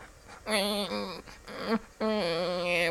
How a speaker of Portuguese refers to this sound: Ele tá falando vovó, Marcos.